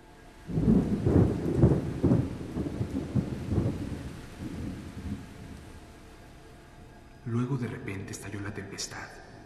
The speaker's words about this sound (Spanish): Poco después de la medianoche, se oyó un extraño rumor en el mar, y arriba en el aire empezaron a sonar débilmente unos truenos cavernosos.